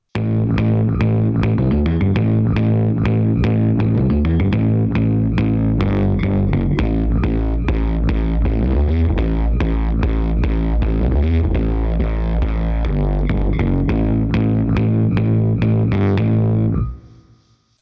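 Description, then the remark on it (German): A funky, choppy electric piano riff plays loud, its tone growing dirtier and more distorted over a heavy low end as the sub control is slowly turned up, before stopping abruptly near the end. “Jetzt spiele ich einen funky Sound und fahre den Sub langsam rein und du wirst hören, wie das ganze Signal sich komplett verändert und wir viel mehr Schmutz und Distortion erzeugen.”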